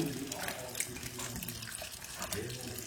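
Rum pours and splashes steadily through a funnel held up high into a smoky whisky cask, a continuous trickle with bubbly gurgles throughout, no talking.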